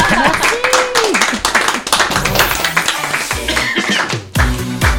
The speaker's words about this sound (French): Allez, on applaudit ta collègue.